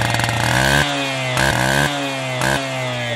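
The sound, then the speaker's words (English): A chainsaw engine revs loudly, its buzzing pitch surging and falling back in several quick bursts over a steady idle, with no voices. “While those two are busy chatting and running around playing guns and chainsaws”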